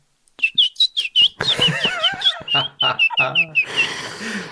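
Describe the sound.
During a game of "Ich packe meinen Koffer", a voice imitates a canary ("Fiep, Fiep") with a rapid run of high, squeaky chirps, about fifteen short whistled peeps in quick bursts, ending in a breathy hiss.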